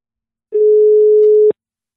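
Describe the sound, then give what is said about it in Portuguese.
A telephone call tone while redialing a phone call with a poor connection: one steady, mid-pitched electronic beep lasting about a second, starting and stopping abruptly, loud and clear with no voices around it. “Não, deixa eu ligar, vou ligar de novo, peraí.”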